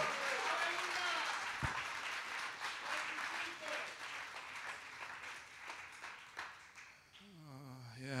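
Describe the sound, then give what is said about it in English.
An audience clapping their hands in praise to God in sustained, dense applause, steady throughout, with voices rising over it near the end. “Can you clap your hands and give God?”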